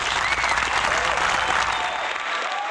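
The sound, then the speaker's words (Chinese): An audience applauds with dense, continuous clapping that stays fairly loud and steady for about three seconds, easing only slightly at the end, welcoming a singer before a song. No one speaks over it. “好的，来，掌声欢迎。”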